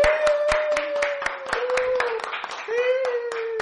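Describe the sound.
Brisk, evenly spaced hand claps, roughly four per second, welcoming the day's guest, while a voice holds a long, wavering cheer over them.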